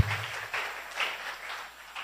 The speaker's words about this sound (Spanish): Denle un fuerte aplauso a nuestro Dios.